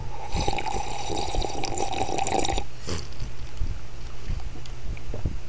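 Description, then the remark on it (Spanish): Someone takes a sip of water, with wet sloshing and a few soft gulps and swallows spread over several seconds, no talking. “Déjenme, le doy un buche al agua, van a decir como chingo, como hablo, que no hago nada, pero espérenme.”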